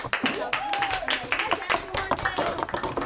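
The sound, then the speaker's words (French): An audience claps steadily for about three seconds, a dense, fairly loud patter of many hands, with a few voices calling out faintly beneath the applause. “Oh là là, merveilleux, on peut l'applaudir”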